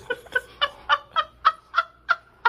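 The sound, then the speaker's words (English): A chicken clucks in a steady run of about ten short, bright calls, evenly spaced, heard in a played video, with no voices over it. “This is the one yeah. with the chicken.”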